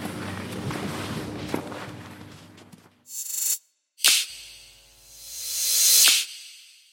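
Brisk, sporty footsteps crunch along at a steady pace for a few seconds as someone walks toward the mountain top station, followed by several bursts of hissing, airy noise that swell and fade with a brief silence between them.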